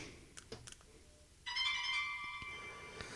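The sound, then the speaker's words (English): A few soft button clicks as the select and home buttons on a Dot Watch are pressed twice, then a bright, high electronic find-my-phone alert tone from an iPhone rings out clearly for about a second before fading, with no talking. “That's me doing a find my phone.”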